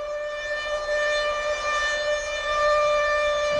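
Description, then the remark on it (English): A steady air raid siren sound effect wails continuously, its sustained tone holding loud and unbroken throughout with rich overtones, no voices present. “Long time when I sound the alarm”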